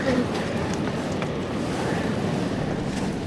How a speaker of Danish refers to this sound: Jeg kan stadig høre havet i baggrunden. Nu er det sådan på den der hyggelige måde.